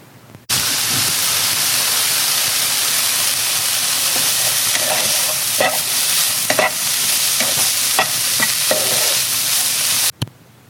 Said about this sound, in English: There is nothing my ears like more than the sound of a good meal the crackling of the pan.